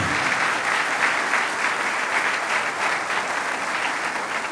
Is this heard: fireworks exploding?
no